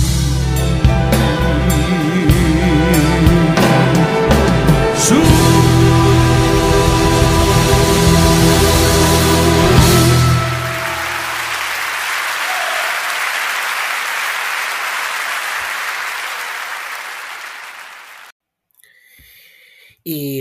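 A recording of a 2012 live concert at the Megaron Athens Concert Hall: music with strong low, sustained tones fades into a broad wash of audience applause that continues for several seconds before cutting off abruptly near the end.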